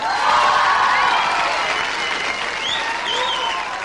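A live audience applauds loudly and steadily, a dense wash of clapping with scattered cheers and whistles rising over it, sustained without a break.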